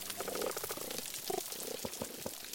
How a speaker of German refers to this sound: Das zirpende, schnatternde, knisternde, gurrende Korallenriff.